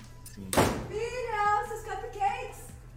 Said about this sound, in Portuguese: Eu acho que tava muito perto e a porta bateu mais forte do que ela esperava.